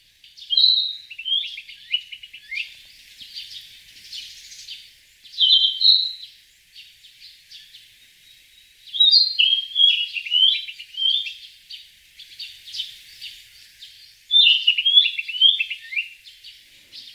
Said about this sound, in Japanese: キビタキのさえずりが陸義園の木漏れ日のように森の中に響いていきます。